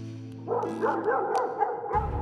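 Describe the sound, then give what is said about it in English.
A big dog barks madly from upstairs in a fast, continuous flurry of loud, overlapping barks lasting about a second and a half, with no voices around it. “It was a dog, barking madly.”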